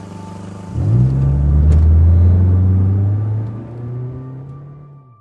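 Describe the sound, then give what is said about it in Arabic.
A car engine roars to life and accelerates hard, a deep rising rumble that surges loudly, then gradually fades as a man speeds away in his car. “ليتركني منطلقا بسيارته وأنا في ذهول ما تفوه به”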